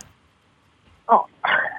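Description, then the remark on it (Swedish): A toad croaks twice after a quiet moment: a short, rough call, then a slightly longer one, both fairly loud. The toad species is called Paddus Peter, tied to the Morgongänget show on Mix Megapol. “Nu fick jag precis, eh, nu, nu, fick jag precis fram vad, vad, det, vad den här paddarten heter.”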